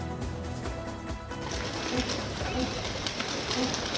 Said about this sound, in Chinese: 笼子一开，鸽子振翅飞回鸽舍。现在这个网络通讯发达的年代，印度竟然还有警察局训练飞鸽传书。